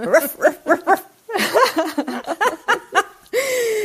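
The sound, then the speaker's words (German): A person imitates their dog's bark with a quick series of short, yappy barks, fairly loud with a slightly laughing edge, then ends on a drawn-out, steady vocal tone. “Äh, mein Hund bellt so.”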